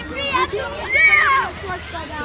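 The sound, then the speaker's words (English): High-pitched children's voices call and shout over a steady outdoor wash of Atlantic Ocean water, with one bright, rising cry standing out near the middle, as kids play on a beach in Cornwall, England. “But now drop in some kids for me.”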